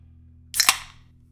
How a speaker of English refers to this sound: there's a reason why Nick was so authoritative with that beer crack